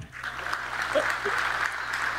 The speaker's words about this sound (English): No, fellas, clap it up.